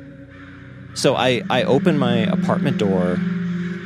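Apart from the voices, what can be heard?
crows cawing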